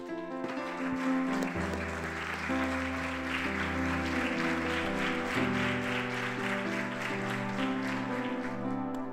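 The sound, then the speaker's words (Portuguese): An audience applauds Jesus from their seats in a steady, dense wash of clapping that lasts throughout, with sustained keyboard chords playing underneath and no one speaking. “Você pode tomar o seu assento e aplaudir a Jesus por isso?”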